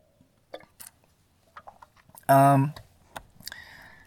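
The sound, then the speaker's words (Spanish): Quiet mouth noises and small clicks of someone sipping hot coffee, followed by a short, loud, satisfied voiced sigh, then a few soft lip and swallow sounds. “Pausa para trago de café.”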